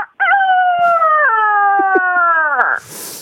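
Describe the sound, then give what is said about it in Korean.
A person imitates a rooster's crow in one long, loud, sustained call of about two and a half seconds, its pitch stepping down partway through, before breaking off into a breathy noise at the end. “닭소리 갈게요.”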